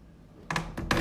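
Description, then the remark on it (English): A door shuts after a moment of quiet, giving a couple of sharp clacks and a heavier thud as the latch catches. No one speaks. “And that is the door closing”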